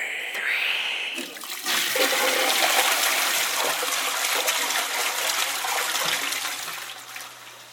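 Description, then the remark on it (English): A toilet flushes away feces with a loud rushing gush of water that swirls and drains steadily for several seconds, tapering slightly at the end. “Let's flush it together as friends.”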